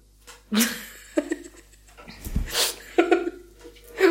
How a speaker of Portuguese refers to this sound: os gatos brincando de pega-pega.